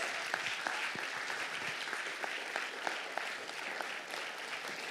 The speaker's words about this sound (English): I want us all to stand, and I also want to give him a, ma- a, big round of applause for obeying God that we get the most out of his message this morning. Let's stand, let's give him a big clap.